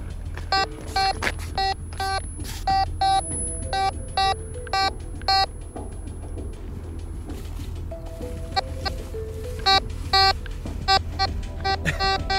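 A metal detector beeps in uneven bursts of short electronic tones, the pitch shifting partway through, over a steady low hum with no one speaking.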